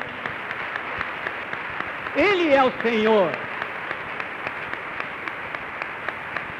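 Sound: audience applause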